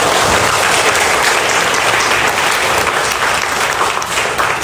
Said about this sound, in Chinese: 所以想借用各位的掌声，感谢以上的感谢。